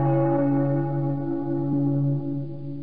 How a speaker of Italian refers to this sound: Ovviamente le campane non funzionavano proprio benissimo, soprattutto per quelli che non vivevano nelle immediate vicinanze della chiesa.